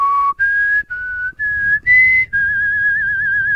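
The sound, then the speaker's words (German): Someone whistles the X-Files TV theme melody: six clear, sustained notes with short breaks, ending on a long, wavering held tone. No one talks. “Das ist Akte X. Das genau. ist Akte X.”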